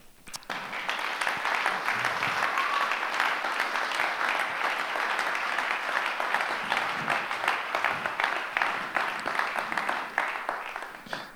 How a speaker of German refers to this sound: Und ich möchte an dieser Stelle äh, ein Ehepaar aus unserer Church begrüßen. Und ich möchte euch bitten, dass ihr mit einem Applaus auf der Bühne willkommen heißt